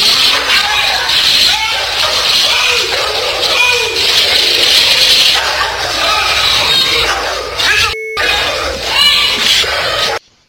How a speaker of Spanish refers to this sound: Ok, también el, el audio de, de, la perrita mordiendo al dueño también es algo gráfico porque se escuchan los gritos de terror de del vato. Entonces. Correcto. vamos a escuchar eh, cómo el vato grita y dice: ¡No!